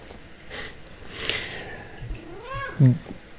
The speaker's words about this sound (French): Oui, euh, j'ai mon chat qui dit miaou. Euh, il, a bien, il, a bien, il, a bien, raison. C'est, probablement un signal.